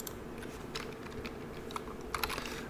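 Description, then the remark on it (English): Several quick, light key clicks of keyboard shortcuts tapped out in short irregular bursts on a computer keyboard, fairly quiet, with no talking. “It's not very forgiving here with those with those keyboard shortcuts.”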